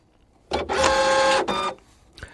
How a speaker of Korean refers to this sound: 팩스 들어오는 소리예요. 아우 요란하네. 팩스 들어오는 소리입니다.